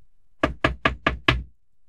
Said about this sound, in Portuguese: Logo, a van do lado de fora ressoa e escutamos uma batida na porta.